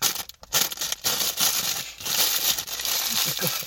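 Crinkly plastic cookie packaging rustles and crackles continuously as cookies are taken, with brief pauses and sharper crunches, while faint voices murmur underneath.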